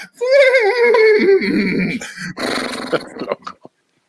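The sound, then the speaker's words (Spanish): A person's voice mimics a horse's neigh: a loud, quavering whinny that slides downward in pitch, then breaks into rough, sputtering snorts before cutting off. “No, es no creo que sepa dirigir, nada más sabe relinchar.”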